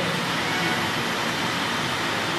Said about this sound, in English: Gonna try to outspeak the rain here